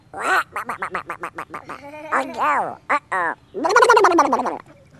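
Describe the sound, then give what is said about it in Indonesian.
A voice imitates a duck for an audience of children, starting with a rapid run of short nasal quacks, then a few longer drawn-out quacking calls, loud, with a burst of raspy vocal noise near the end. “Suara siapa itu? Bebek.”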